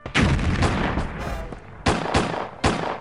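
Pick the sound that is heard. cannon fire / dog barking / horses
cannon fire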